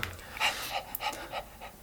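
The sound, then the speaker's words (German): A person imitates a dog's panting: quick, breathy huffs repeating in a steady rhythm, fairly quiet, with no talking. “24.000 Menschen gehechelt wie so ein Hechler. Wie so ein Hund.”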